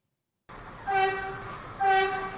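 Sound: subway train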